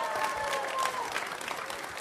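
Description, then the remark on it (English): Audience applause at Twins Fest as Ryan Jeffers and Bailey Ober join the stage, a steady dense patter of many hands clapping at an even loudness, with a few faint whistles or cheers rising above it. “Joining us on the stage now, Ryan Jeffers and Bailey Ober. Give it up, everybody.”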